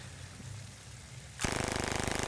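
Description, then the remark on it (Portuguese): After a low rumble, an automatic weapon firing 9mm pistol ammunition abruptly fires a loud, sustained burst of rapid, evenly spaced shots lasting about a second at a bucket target, with no voices. “Eita, essa é automática, essa é rajada ainda.”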